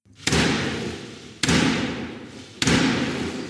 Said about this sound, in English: The Queen's speech is one of those occasions that shows the British state at its best, pomp and circumstance. With golden carriages and a big stick knocking on a big wooden door, it's a dream for those who adore tradition.